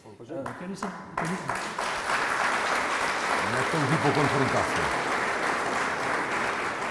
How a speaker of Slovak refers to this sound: E, vy ste síce zatleskali, ale keby som si asi mal z tohto robiť poznámky, tak by som to nevedel.